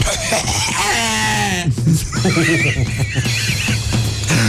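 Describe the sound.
A person gives a loud, wavering bleat imitating a sheep called Prințesa, a 45-kilogram, 7-year-old sheep: a long quivering cry that rises and trembles, followed by a shorter, higher warbling call, with other voices murmuring in the background.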